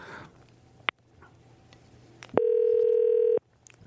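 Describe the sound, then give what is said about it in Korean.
A short electronic beep, then a steady mid-pitched telephone tone that holds for about a second before cutting off, as a call is placed to a listener, with a faint low hum underneath and no talking. “7986님 전화 한번 걸어보죠.”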